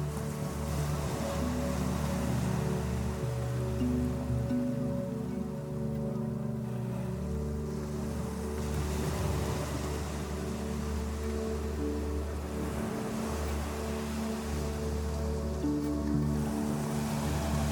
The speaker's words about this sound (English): Focus on the sensation of the waves as they slowly wash over your feet. And slowly up your ankles.